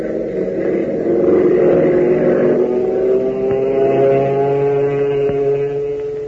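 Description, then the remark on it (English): A loud, steady airplane engine roars, its droning pitch sliding slowly downward as the plane comes in to land. No voices are heard. “listen to the roar of that motor as Hop brings his ship in for a landing”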